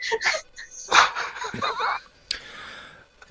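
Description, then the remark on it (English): A person does a breathy vocal imitation of a horse whinny: a string of shaky, wavering bursts that rise and trail off over about three seconds. “She opens the pouch and it neighs.”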